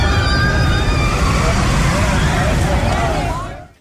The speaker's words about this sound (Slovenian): Ena od bolj znemljivih stvari, ki jih lahko doživiš, je, da si privoščiš v kakšnem zabaviščnem parku ali takem profizoriš ali pa v kakšnem čisto resnem tematskem parku vožnjo na kakšnem vlaku smrti.